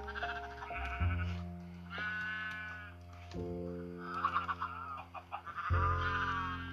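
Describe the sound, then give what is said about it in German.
Video game sheep bleat repeatedly while being sheared, several wavering baas overlapping, over a steady low droning background tone with no talking. “Ey, Schafscheren. Ah, es wird schon wieder so laut.”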